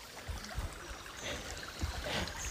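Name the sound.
babbling stream water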